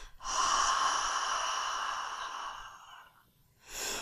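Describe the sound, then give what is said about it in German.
A long, breathy open-mouthed exhale in Ujjayi breathing, a yoga pranayama technique, a soft hissing "haaa" like fogging a mirror, lasting about three seconds and fading, followed by the start of another breath. “Die dritte Übung ist eine, ähm, aus, auch wieder aus dem Yoga, eine Pranayama-Technik, die Ujjayi-Atmung. Und bei der Ujjayi-Atmung ist es so, dass du dir vorstellst, du würdest äh, gegen so einen Spiegel atmen, so ein leichtes.”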